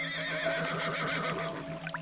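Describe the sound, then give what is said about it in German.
A unicorn with a long orange-red mane and a purple-red horn neighs in a bright, wavering whinny that carries for about two seconds, clear, with no talking over it. “Das Einhorn stößt ein helles Wiehern aus, als es dich sieht.”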